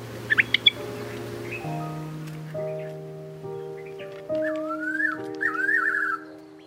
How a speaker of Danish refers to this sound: De til tider eksotiske fuglelyde var med Arabia Goldwinged Crossbeak